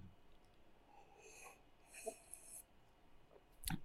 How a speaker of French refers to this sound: je sais pas si ça va vous saouler qu'on entende le bruit de, de quand on boit, mais dites-moi.